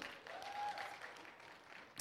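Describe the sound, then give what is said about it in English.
A church audience applauds steadily for the children as they leave for Kids Church, a dense wash of many hands clapping at once, holding fairly even in loudness with a sharper clap or two near the end. “And so let's give our kiddos a round of applause as they get going.”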